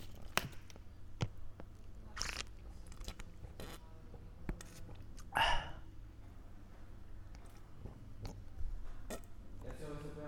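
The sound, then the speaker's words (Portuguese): A person makes ASMR mouth noises right at the microphone: scattered wet clicks, smacks and lip pops at an irregular pace, with one louder, longer burst midway, over a faint steady background hum. “Faz assim barulho de boca, faz barulho.”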